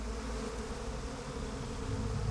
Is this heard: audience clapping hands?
no